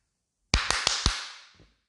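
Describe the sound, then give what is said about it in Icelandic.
Four sharp claps in a quick, even rhythm, the famous clap from the theme of the TV sitcom Friends, each ringing out and fading into a lingering wash. No one speaks. “Ég var sána með þetta, ég ákvaði að henda í Friends klappið og læti fyrir þessum Craig Awesome guy.”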